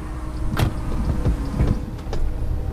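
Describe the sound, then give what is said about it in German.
Doors of a driverless car closing with a few quick mechanical thuds and whirs against a steady low vehicle hum, with no talking. “Und dann ging's los. Doors are closing.”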